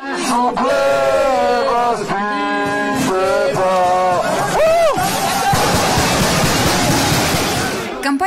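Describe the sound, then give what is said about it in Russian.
A loud protest crowd at a spontaneous Wednesday-evening rally around a restaurant chants angry slogans in rhythmic, repeated bursts of many voices, with a rising shout partway through, then breaks into a roaring, noisy clamor of yelling. “Начался стихийный митинг, зазвучали довольно гневные лозунги, патриотические песни.”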